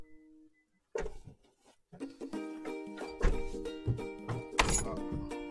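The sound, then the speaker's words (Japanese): A door being locked: a few solid thunks and clicks with sharp onsets, spread over several seconds above a steady, tonal humming background. “ああ、鍵閉めた。”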